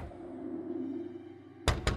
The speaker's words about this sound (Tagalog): natigilan kaming apat nang may biglang kumatok sa pinto